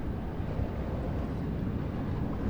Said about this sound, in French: Et le vent donc euh, qui vient de terre, le Mistral, vient ralentir les vagues. Et c'est ce ralentissement qui fait avec la, la pression du vent cette rumeur de basse, de grave, espèce de roulement de tambour continu.